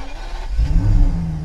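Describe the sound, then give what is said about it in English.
A car engine rumbles low, then swells into a steady revving drone as the vehicle pulls off, driving a mother and her son back to their house, holding its loudness to the end without any voices. “As Joel and his mum drove back to their house, Joel watched the landscape change.”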